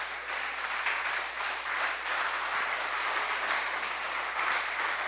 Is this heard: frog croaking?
no